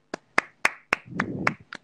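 Seven sharp hand claps in a loose, slightly uneven rhythm, each a crisp smack. A low, muffled rumble sits under a few of the claps in the middle.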